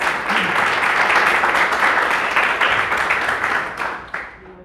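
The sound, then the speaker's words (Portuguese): Sustained applause from a church audience in worship of the Lord Jesus Christ, a dense, steady wash of many hands clapping at full volume, thinning slightly toward the end. Faint voices murmur underneath. “Em nome do Senhor Jesus, assim eu agradeço a oportunidade, as palmas que adorem ao Senhor Jesus Cristo.”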